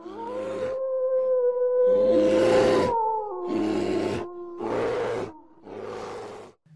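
A wolf's long, wavering howl carries through the whole stretch while a bear lets out four or five loud, rough roars in steady bursts over it. No one speaks.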